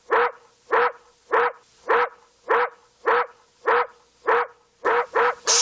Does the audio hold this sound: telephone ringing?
no